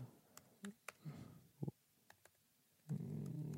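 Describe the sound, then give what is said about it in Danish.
Scattered keyboard keystrokes tap out in an irregular rhythm as a search for a track is typed into Spotify, fairly quiet, with a low murmur of voices rising underneath toward the end. “Prøv at skrive.”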